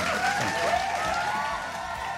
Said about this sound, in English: Let's get a round of applause for that, Carl. Please, do we have the round of applause there?